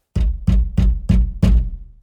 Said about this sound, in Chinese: 突然。诶，是谁在敲门？